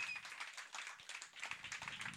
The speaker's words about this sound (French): J'aimerais ça une petite main d'applaudissement. Merci. Voilà.